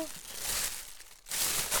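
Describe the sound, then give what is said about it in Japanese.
Steady crinkling of a black plastic bag being handled and opened as a Yu-Pack parcel sent to the show is unpacked, with bright rustling bursts, a brief lull, then another burst of rustling. “ゆパックがあ今回はねあの俺が先週というか先々週から怒ったっていうのもあってちゃんと封が開いてますねええ真っ黒のビニール袋に”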